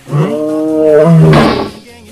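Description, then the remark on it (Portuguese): A lion lets out one loud roar lasting about two seconds. It starts as a deep tonal bellow, swells into a rough, noisy blast, then trails off quickly. “Leão, vem cá, Leão. Vem cá, Leão.”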